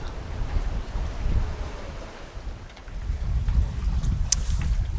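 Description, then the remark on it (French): Wind buffets a microphone aboard a sailboat on the Atlantic, heading to Madeira between 1 and 2 a.m., while waves wash and rumble steadily beneath, a continuous loud low roar with a few brief higher splashes near the end. “Nous sommes sur le bateau, ça s'entend.”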